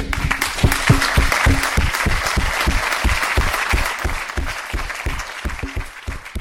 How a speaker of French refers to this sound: non seulement on applaudit